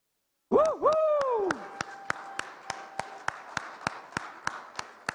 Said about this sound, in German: Darf man sehen, wer ist ein geborener Österreicher, wirklich geborener, hier geboren. Steht mal alle auf. Für euch haben wir einen Applaus.